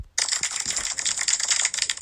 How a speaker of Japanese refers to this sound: いや、拍手するとこじゃないかな